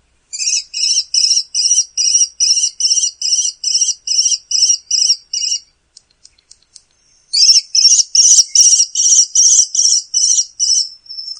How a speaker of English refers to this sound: and so here is the call of a male kestrel.